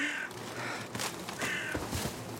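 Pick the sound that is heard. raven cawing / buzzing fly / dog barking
raven cawing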